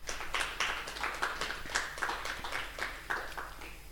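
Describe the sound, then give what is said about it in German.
A round of audience applause, steady overlapping claps at moderate volume lasting a few seconds, with no one speaking over it. “Ja, das ist dem Publikum auch nochmal ein Applaus wert.”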